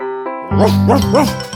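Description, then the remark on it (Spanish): Camote the dog, of a Peruvian early-education children's programme, gives three short, evenly spaced barks, fairly loud, over a steady, sustained musical backdrop, with no one speaking. “Yo soy el perro Camote.”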